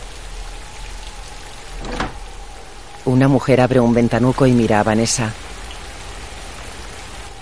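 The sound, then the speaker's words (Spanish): Steady rain patters down on a moor, before a house beside a dead tree, in a continuous soft hiss, with one louder thud early on; partway through, a voice speaks for a couple of seconds over the rainfall. “En el páramo, Vanessa sostiene una bolsa bajo la lluvia.”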